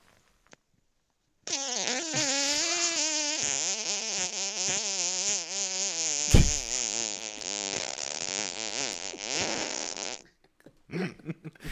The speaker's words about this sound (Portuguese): Parece um mosquito. Parece um mosquito. É o peido Aedes aegypti.